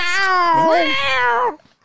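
A single long, drawn-out cat meow, loud and close, rising and wavering in pitch like a yowl before cutting off abruptly, with no talking over it.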